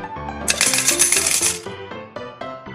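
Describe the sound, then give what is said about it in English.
Two quarters clink and jangle into a coin bank after a cup of lemonade is sold, in one bright, metallic burst lasting about a second, layered over a bouncy, stepping musical melody that keeps playing afterward. “Clank, clink, clank. Two more quarters in my bank.”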